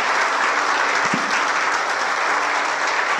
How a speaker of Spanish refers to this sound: Amén. Gloria a Dios. Un aplauso a Jesús.